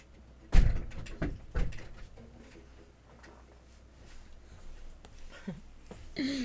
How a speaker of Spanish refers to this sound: Denme un segundo que necesito abrir la puerta. Quienes tengan gatos me entenderán. Mi gato quiere entrar. Ven.